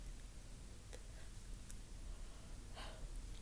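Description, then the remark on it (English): A single quiet yawn, a soft breathy exhale lasting a moment, over low background hiss with no talking. “I just had to yawn again and I didn't have time to pause to block out the yawn”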